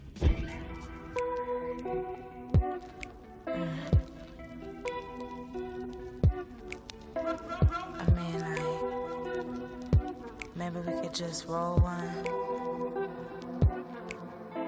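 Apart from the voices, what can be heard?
music track playing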